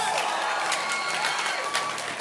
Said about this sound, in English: Stand up and clap your hands.